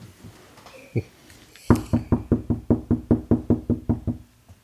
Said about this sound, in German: Wer hat da geklopft?